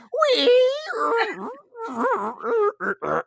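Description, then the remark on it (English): A voice mimics a creaking shed door being pulled open, a long rising and falling squeal followed by several shorter wavering creaks, fairly loud with no actual words. “So either they can hear our squeaking Squeaky of a door.”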